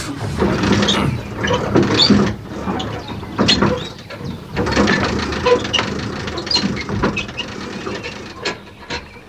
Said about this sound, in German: haltet mal die Winde fest.